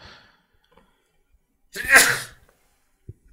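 A single sharp sneeze bursts out loudly, a quick intake followed by an explosive, breathy release, then near silence with only a faint tap afterward.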